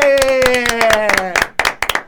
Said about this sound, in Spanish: y le vamos a dar un aplauso fuerte.